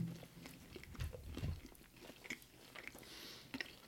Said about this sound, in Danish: Lad os bare tage en enkelt bid.